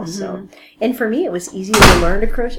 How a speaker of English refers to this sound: Ooh, sorry about the wind just wind. slammed the door. Startled me.